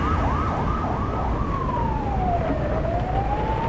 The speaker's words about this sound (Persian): صدای آژیر ماشین های پلیس از دور به گوش می رسید